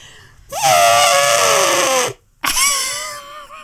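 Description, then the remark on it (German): A voice imitates an elephant trumpeting in two loud, brassy blasts: a long shrill one that bends downward in pitch, then a brief pause and a second, shorter blare. “Ich kann, ich kann irrsinnig gut einen Elefanten nachmachen.”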